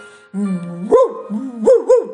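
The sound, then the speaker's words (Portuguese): A dog named João barks: a low, drawn-out growly tone breaks into a sharp rising bark, then the pattern repeats with two quick barks, loud and clear with no talking. “Logo em seguida, chegou o João, o cão, e também veio todo com seu jeito de moço, educado, e sugeriu:”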